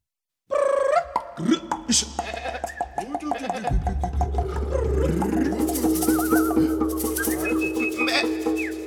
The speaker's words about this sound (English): It was an Afrikaans folk song in an African idiom.